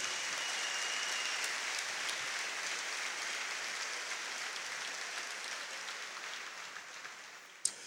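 Steady applause from an audience at a church service applauding the Lord, a dense wash of clapping that holds at a fairly even level and then gradually thins out, ending with a single sharper clap near the close. No one speaks.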